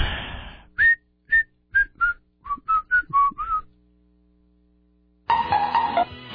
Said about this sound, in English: I'll just whistle to myself.